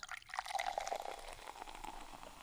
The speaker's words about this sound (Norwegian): Her skjenkes det Pepsi. Ja. En liten Pepsi-pause.